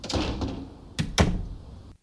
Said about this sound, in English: Tracy said as she walked out and slammed the door